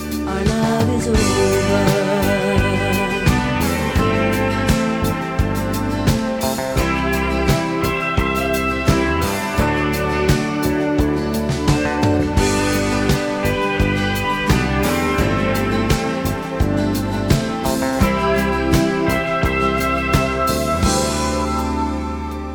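An early-eighties pop song plays steadily and loudly, with a driving beat, bass, keyboards and sustained harmonies filling the full stretch without any talking over it.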